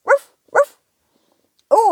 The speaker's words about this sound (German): Was ist denn das für ein Gebell? Oh, ein Hund steht mit einem Ball vor unserem Schubladenhaus.